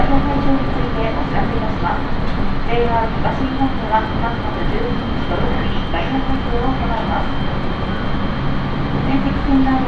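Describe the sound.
A JR East train car on the Tohoku Main Line between Sendai and Kogota, Japan, rumbles steadily along the rails, a continuous roar heard from onboard, with a voice talking over the running noise throughout.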